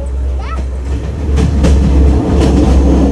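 A train on the Kandy to Ella route in Sri Lanka rumbles and rattles steadily along the tracks, with a deep continuous roar, scattered metallic clicks, and a brief squeal early on.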